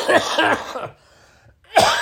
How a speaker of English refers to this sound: fucking cough, man. I saw a doctor. I'm on an antibiotic. I got tested for COVID. Um, it's just one of those things you're going to have to ride it out.